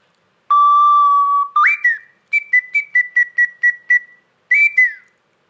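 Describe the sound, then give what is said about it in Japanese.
A bird call whistle blown alone: one long steady mid-pitched tone, then a rising chirp, a quick run of about eight short bright peeps, and a final warbling trill. “とか吹くと鳥も一緒になって吹いてくるそうなんですなんか仲間だと思って寄ってくるみたいな感じなんですか”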